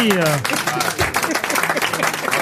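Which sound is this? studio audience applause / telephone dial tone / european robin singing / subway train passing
studio audience applause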